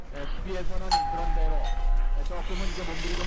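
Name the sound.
doorbell ringing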